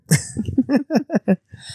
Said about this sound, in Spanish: Perdón si, me escuchan toser mucho, es que ya estoy luchando con un tos que regresó.